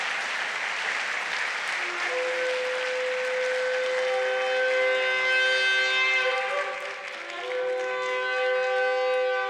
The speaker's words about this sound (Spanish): Si es para el Señor, déselo fuerte y que suene el chofar.